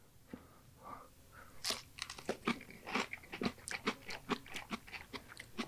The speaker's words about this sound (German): Finde ich ja immer unangenehm, so Leute, die so einen Podcast irgendwie essen, schmatzen, Essgeräusche machen.